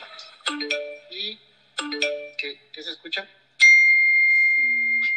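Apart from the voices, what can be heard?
mobile phone ringtone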